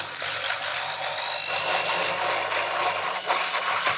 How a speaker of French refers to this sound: Et, et on incorpore de l'air. Avec quoi tu fais ça Un petit bas mix un petit, euh, un petit, euh, un petit mélangeur plongeant, petit mixeur plongeant qu'on a à la maison, classique.